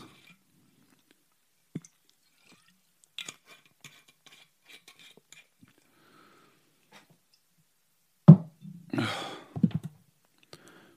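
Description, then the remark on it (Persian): Quiet small clicks and a bottle or glass clink, then a wet gulping swallow of bourbon followed by a soft exhale near the end. No one speaks. “ای خدا بذار یه قلوب بربن بخورم شاید, شاید یادم بیاد”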